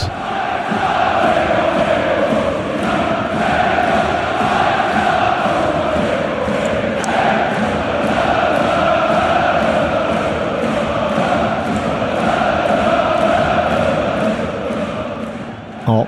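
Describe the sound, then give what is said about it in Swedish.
A huge crowd of Borussia Dortmund football fans chants loudly and continuously in a stadium in Dortmund as Dortmund beat Eintracht Frankfurt, voices merging into a steady, rolling roar with rhythmic swells and a regular pulse running throughout. “Det gungade ordentligt när Dortmund vann mot eh, topplaget som det ska egentligen vara, Eintracht Frankfurt.”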